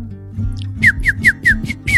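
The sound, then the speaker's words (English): A run of six quick, high bird chirps in a woods, each sliding downward in pitch, repeating at a steady rhythm over a low background rumble. The chirps are clear, with no talking. “The birds are chirping.”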